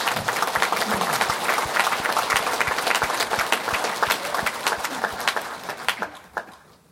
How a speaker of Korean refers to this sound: 부족하기 짝이 없는 우리를 이렇게 믿어주신 하나님께 우리 모두 감사의 박수를 올려드리십시오.